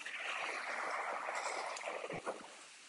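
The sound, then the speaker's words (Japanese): A steady, loud wash of ocean surf, recorded through AirPods with noise cancelling switched off, a continuous hissing roar of waves breaking on the shore with a few brief low thumps near the end. “はい、変えて、おすごい波の音が、僕は聞こえるんですけど、どうでしょうかね。”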